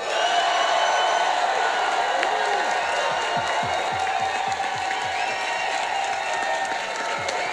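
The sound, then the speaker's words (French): A large crowd at a Québec solidaire gathering applauds and cheers loudly and continuously for new spokesperson Émilise Lessard-Terrien, with steady dense clapping, scattered whoops and shouts rising from the mass of noise throughout. “Mes amis, chers solidaires, faites du bruit pour Émilise Lessard-Terrien!”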